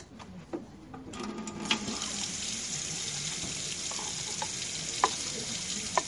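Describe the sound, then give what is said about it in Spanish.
Water pours steadily into small glasses with a continuous, splashy hiss, broken by a few light clinks of glass. No one speaks. “Hacemos esto, le contamos un poquito cómo viene el agua y tiramos gotitas en cada vaso.”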